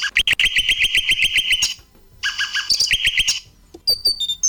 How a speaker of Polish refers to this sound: Mamy jakiegoś ptaszka drugiego.